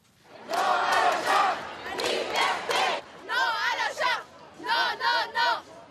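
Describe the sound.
Several thousand demonstrators in Montreal, Quebec, chant in unison at a Saturday protest against the charter and discrimination, shouting a repeated slogan of freedom in loud rhythmic bursts, with higher voices rising in the later phrases and brief pauses between each shout.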